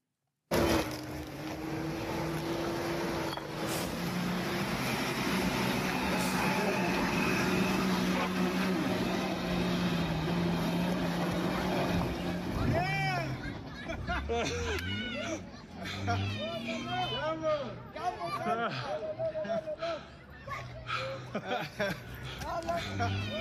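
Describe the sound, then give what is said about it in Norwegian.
A vehicle engine labors and rumbles with rough, rattling noise for several seconds as it crawls through huge potholes on a muddy road in Congo, then the engine fades as several people's lively voices take over. “Ah, vi bare krabber oss frem vet du, gjennom svære høl, og den der er utrolig, altså.”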